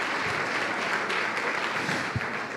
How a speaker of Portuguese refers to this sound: Pode aplaudir, porque a obra é de Deus, não é minha não, é Deus.